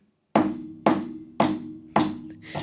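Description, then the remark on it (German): Titus hammering at a scrapyard: five loud, evenly spaced strikes on metal, each a sharp clang followed by a short low ringing resonance that fades before the next blow. “Titus hämmert. Und das sind einfach diese tollen Schrottplatzgeräusche, die ich immer wieder gern höre.”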